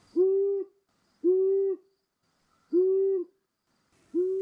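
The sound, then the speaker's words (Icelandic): Four steady, low hoots from a long-eared owl, each about half a second long with a few seconds' rhythm between them, clear and unaccompanied by any talking. “Eirugland sérst reglulega hinga á þangað og það er gaman og í vor sást hún meira segja í grímsi.”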